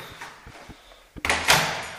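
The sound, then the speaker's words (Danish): A door opens and closes: a few soft knocks and rattles, then a sharp latch click followed by a loud, sweeping rush of sound that slowly fades, with no talking. “Og så er det bare ud af døren.”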